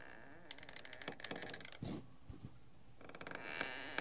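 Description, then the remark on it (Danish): Drawn-out creaking in an apartment, a series of strained groans and squeaks with brief pauses, moderately loud, with no voices. “Det knirker i lejligheden.”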